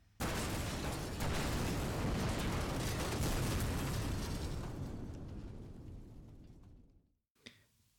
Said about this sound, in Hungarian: Egy szívdobbanással később a 299-es modell becsapódik a kifutópálya betonjába, és tűzlabdává robban szét.